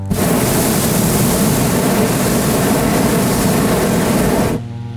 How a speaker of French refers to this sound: Les nacelles sont couchées pour permettre de gonfler les ballons déployés au sol avec de puissants ventilateurs, et puis on sent que ça se précise quand les brûleurs entrent en action pour chauffer l'air.